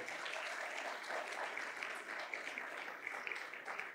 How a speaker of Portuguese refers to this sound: Dá um aplauso bem forte para o Senhor.